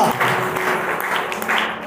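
An audience at a church service claps steadily at the call to applaud, with dense, overlapping clapping that stays fairly loud and even for a couple of seconds and fades slightly at the end.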